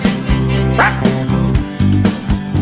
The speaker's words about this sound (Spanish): perro guardián, si se te acerca, se pone alerta y les puede ladrar.